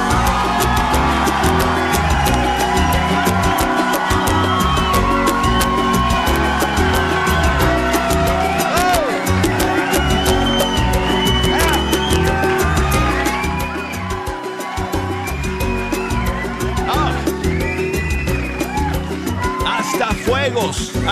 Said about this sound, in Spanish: Oye, quiero aplausos. Quiero porras. Quiero vítores. Quiero gritos. Porque hoy es viernes.